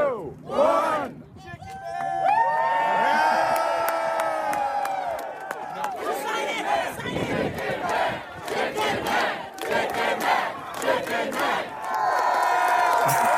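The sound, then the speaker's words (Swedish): A large crowd on a pier in Philadelphia cheers and shouts continuously as a man eats his last chicken, with many overlapping voices whooping and yelling in a loud, sustained roar that rises and falls over several seconds. “Så vi kan väl höra, det var ganska mycket folk på plats då, där i, i Philadelphia, ute på piren.”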